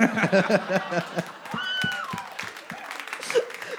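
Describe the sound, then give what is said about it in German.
An audience laughs and claps, and partway through a single high-pitched shriek from someone in the crowd rises briefly above the noise, moderately loud. “irgendwer kreischt hier die ganze Zeit.”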